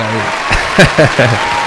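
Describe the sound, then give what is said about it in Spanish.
Steady, dense applause for a guest singer on a live show fills the whole clip, a loud wash of clapping with a few short bursts of a voice rising over it partway through. “a quien le voy a dar un fuerte aplauso.”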